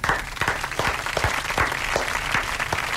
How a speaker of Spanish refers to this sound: Está mal que aplaudo yo también